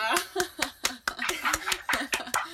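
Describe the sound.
A steady run of sharp claps, about a dozen evenly spaced hand claps, mixed with laughter and voiced chatter over the top.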